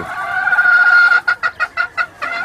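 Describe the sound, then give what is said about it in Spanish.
Very young fighting-breed chickens call: one drawn-out squawk gives way to a quick, even run of about six loud clucks, with no voices. “Precioso gallo. Son pollos muy jovencitos y bien hermosos están aquí.”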